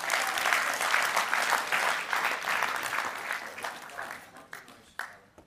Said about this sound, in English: Give yourselves a mighty clap. Yeah.